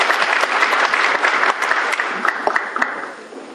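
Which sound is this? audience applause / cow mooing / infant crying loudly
audience applause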